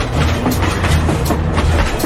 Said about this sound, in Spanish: Ahí empezó a sonar el tren.